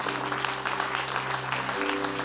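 Warm audience applause, a steady dense patter of many hands clapping at even loudness throughout, with a low hum underneath and no voices standing out.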